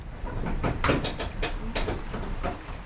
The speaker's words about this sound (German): Die Bahn rattert so laut, dass man kaum sein eigenes Wort versteht. In den steilen Kurven quietschen die Räder in den Schienen.